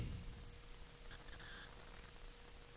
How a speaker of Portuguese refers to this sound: Meu, me incomodou esse chiado agora, hein?